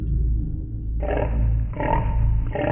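A pig squeals: a deep, rumbling growl gives way to loud, harsh, raspy squealing in two or three rough bursts, with no talking.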